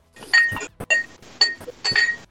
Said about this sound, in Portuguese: Eu tô ouvindo barulhinho de louça. Né?